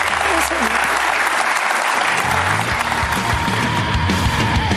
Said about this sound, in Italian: Comunque ti posso dire che questa qua in realtà era una presa per il culo agli applausi a comando eh, che ci sono sempre nella trasmissione di Floris.